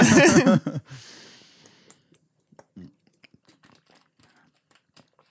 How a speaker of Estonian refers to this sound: ma võtan lonksu vett enne seda.